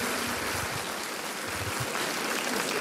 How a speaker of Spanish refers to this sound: Le damos un aplauso a Lirra, ¿verdad? Le damos un aplauso a Israel.